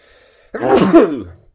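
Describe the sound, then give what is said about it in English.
A single loud sneeze bursts out after a brief near-silent pause, a harsh breathy blast with a voiced edge that trails off within about a second. “If I sneeze, I am sorry. I'm going to do it now.”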